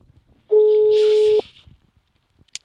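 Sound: telephone ringback tone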